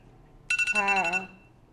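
A phone alarm goes off briefly: a rapid series of bright electronic pulses with a rising-and-falling melodic tone, loud, cutting off after less than a second.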